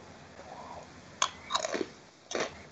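Crunching on snacks from a can: three loud, crisp bites at uneven intervals, each a sharp crackle with brief chewing after, over a low steady background hum and no talking.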